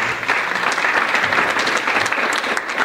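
A crowd applauds steadily, a dense, sustained patter of many hands clapping at an even loudness for a few seconds with no voices standing out.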